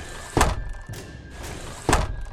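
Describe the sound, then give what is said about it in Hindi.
Four dull thuds of windows and doors being shut from the inside of a house in quick succession, the first and last noticeably heavier, with no voices. “और जैसे ही वो अपने घर पहुंचा उसने अंदर की तरफ से सारे खिड़की और दरवाजे बंद कर लिए”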